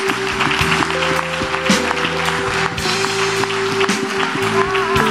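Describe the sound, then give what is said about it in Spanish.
A crowd claps steadily and loudly throughout, giving applause to the Lord after a prayer, a dense wash of applause over sustained keyboard or organ chords playing underneath. “Vamos a darle un fuerte aplauso al Señor.”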